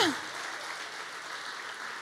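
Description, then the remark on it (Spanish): Steady applause from an audience, a dense, even clatter of many hands clapping that holds at a constant level for about two seconds, with a brief falling whoop or whistle at the start. “Hay gente que está observando lo tuyo y diciendo, wow, si yo tuviera hijos así, si yo tuviera un esposo así, si yo tuviera una esposa así, déle el aplauso, déselo, déselo.”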